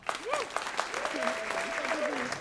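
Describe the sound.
A crowd applauds steadily, a dense wash of clapping with a few voices whooping and cheering over it, sustained and fairly loud throughout.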